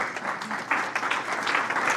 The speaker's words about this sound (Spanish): aleluya, aleluya. Aplauso al Señor.